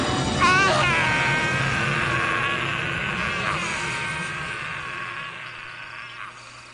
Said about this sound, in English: That scream. What is it? It sounds like a man being eaten alive. It is the voice of a Jedi falling into the darkness. The voice of Exar Kun.